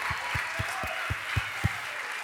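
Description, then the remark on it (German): An audience applauds the band in a steady, dense wash of clapping, with a regular low thumping beat pulsing underneath about four times a second, like rhythmic clapping or stomping. “Hey, können wir Ihnen auch nochmal einen großen Applaus geben?”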